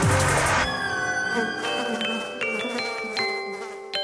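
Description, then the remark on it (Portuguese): Steady buzzing of flies and mosquitoes: several overlapping whining drones that shift slightly in pitch, with a brief harsher burst at the start and no voices. “Eu tenho mesmo medo de moscas, melgas e mosquitos. O barulho que eles fazem é assustador e eu não gosto nada.”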